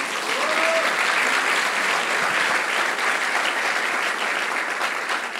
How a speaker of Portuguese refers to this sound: Você pode dar uma salva de palmas a Jesus?